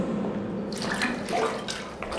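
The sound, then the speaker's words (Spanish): Water sloshes and splashes steadily, a continuous watery rush with brief brighter splashes, as brothers return carrying water in containers. No one speaks. “Y aquí vuelven ya nuestros hermanos con el agua.”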